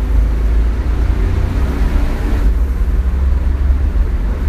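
A car engine runs steadily and loudly, a continuous low rumble with a constant drone and no voices.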